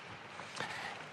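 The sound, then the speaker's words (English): A mountain creek rushes steadily downhill, a continuous hissing wash of flowing water at moderate loudness with no voices over it. “You might hear the water in the background as it flows down a mountainside creek.”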